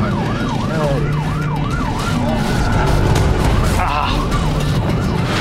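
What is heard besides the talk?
police car siren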